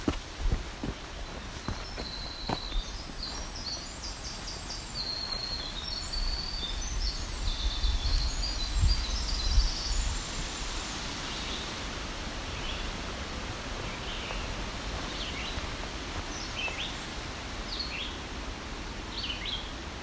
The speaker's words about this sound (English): So these woods are thick enough to have black throated green warbler here.